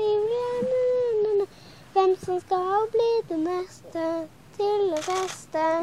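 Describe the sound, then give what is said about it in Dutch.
A young girl sings a short children's song in a high, clear voice, her sustained melodic notes broken by brief pauses between phrases, fairly loud. “Horen we een kinderliedje zingen?”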